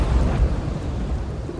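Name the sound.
thunder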